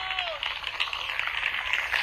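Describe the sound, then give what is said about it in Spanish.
An audience applauds with dense, steady clapping that fills the whole two seconds at an even, fairly loud level. A brief voice is heard at the very start. “Dele verte ese aplauso.”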